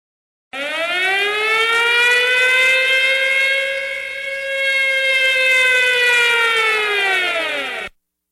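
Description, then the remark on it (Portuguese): A loud, sustained siren sound effect used as a spoiler warning wails for about seven seconds, its tone rising, dipping slightly, then swelling again before cutting off abruptly. No one speaks over it. “E eu vou botar uma sirene Bora, muito alta para falar de spoiler.”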